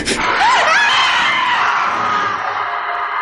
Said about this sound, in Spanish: Está escondida en una buhardilla y desde allí oye gritos despavoridos en el edificio.